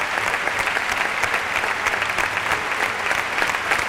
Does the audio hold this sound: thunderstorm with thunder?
no